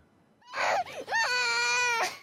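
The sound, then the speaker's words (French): A child cries loudly in two strained bursts, the second a long wailing sob with a rising, harmonic pitch, with no talking over it, as he says a last goodbye to his father, a Ukrainian police officer staying to fight in the war, in the cold and snow. “Des pleurs et de la colère avant un dernier au revoir entre cet enfant et son père, obligé de rester sur place pour se battre.”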